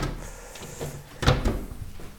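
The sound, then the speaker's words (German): A drawer slides along its runners and shuts with a soft wooden thump midway through as laundry items are put individually into a drawer, followed by faint rustling and handling noises; no one speaks. “Oder man tut es ja. halt einzeln in irgendeine Schublade.”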